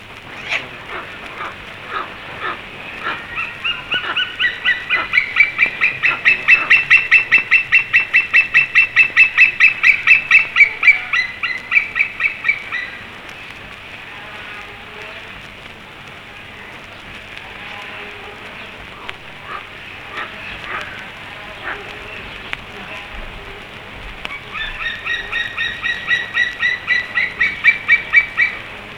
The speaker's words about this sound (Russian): А это кричит орлан белохвост. Он широко распространен по территории нашей страны, но всюду очень редок.